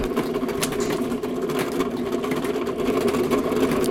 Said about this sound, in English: He turns the bicycle wheel to activate the fire with one hand. It doesn't stop.